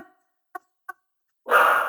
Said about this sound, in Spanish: Me parece genial que, que, tu perra se ponga a ladrar en este momento, justamente cuando estamos hablando de ella.